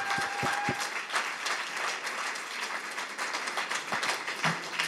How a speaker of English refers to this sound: So put your hands together and let's say thank you to all of you for everything. So, so, so important.